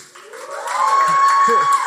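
A short burst of applause with cheering over it and a sustained, whistle-like whoop. Loud and close, it holds steady for about two seconds.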